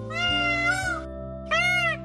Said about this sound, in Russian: Павлин обрадовался несколько раз отрывисто крикнул.